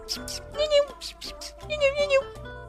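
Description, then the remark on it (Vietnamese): A person makes a few drawn-out, pitch-bending meow sounds in a high, nasal voice, imitating a cat the way one calls a pet cat, with a short breathy pause between them. “tôi cũng chưa thấy một cái giống mèo nào nó có thể biết tên đâu chỉ có gọi kiểu”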